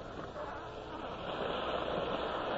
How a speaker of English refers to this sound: Eh, the waves are very strong.